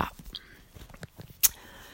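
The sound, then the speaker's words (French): A single quick sip of coffee, with a brief slurping burst among faint mouth clicks and swallowing noises in an otherwise quiet moment. “Petite gorgée de café”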